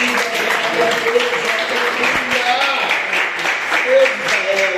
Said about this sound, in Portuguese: E essa é a palavra que o Senhor colocou no meu coração e as palmas que glorificam o nome de Jesus nessa noite.